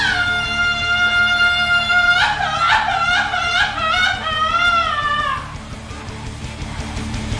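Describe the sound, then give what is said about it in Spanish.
A loud traditional Mexican grito with a little grunt: one long high-pitched yell that holds steady, then breaks into a rapid warbling trill for several seconds before cutting off, leaving quieter background noise. “¡Venga ese grito!”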